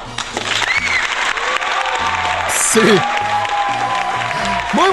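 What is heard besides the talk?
applause sound effect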